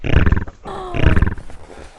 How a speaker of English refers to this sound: I'm going to eat you! Roar!